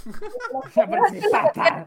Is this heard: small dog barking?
yes